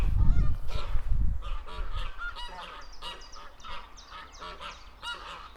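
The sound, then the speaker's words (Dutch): Geese honk repeatedly in a loud, overlapping chorus at a busy pond where coots, storks and ducks also gather, with a low rumble early on and the calls continuing steadily. “Ik zie ganzen, meerkoeten, ooievaars, eenden.”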